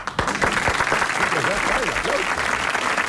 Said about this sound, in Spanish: La gente, por favor, se pueden dejar aplaudir. Porque, uh. ¿Hasta qué hora van a aplaudir?